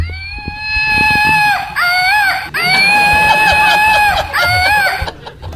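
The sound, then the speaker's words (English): A flying toy monkey from the company Woot, shot into a crowd, lets out a loud, shrill, warbling screech in two long sustained bursts with rising and falling pitch, then cuts off abruptly. “Yeah, so it's an incredibly annoying toy. You'll hear that noise for the rest of its existence until your family dog tears it limb from limb.”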